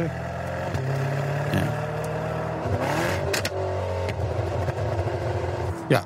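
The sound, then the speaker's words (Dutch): A Mercedes-AMG GT coupé engine rumbles steadily, then revs up with a rising whine around the middle before settling back to a lower hum, ending with a brief sharp burst. “Mercedes AMG GT ja. Coupé. Ja, die klinkt ook zo.”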